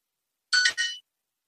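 A short, bright electronic chime from the Duolingo language-learning app, two quick rising tones lasting about half a second, heard clearly with no one talking.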